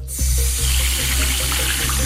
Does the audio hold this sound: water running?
yes